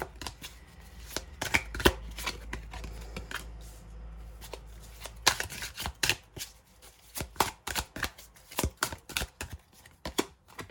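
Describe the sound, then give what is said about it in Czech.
Oracle cards being shuffled, a quick series of sharp riffling snaps and slaps in irregular bursts, with a brief pause before the shuffling resumes, as two cards fall out; no one speaks. “A mám pocit, že tady ty dvě karty dokonce vypadly, tady ty první dvě, když jsem dělala vzkazy z přírody.”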